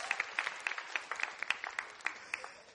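An audience applauds a pastor for a few seconds: a dense, crackling patter of many hands clapping irregularly, with sharper individual claps popping out of the steady wash. No one speaks over it.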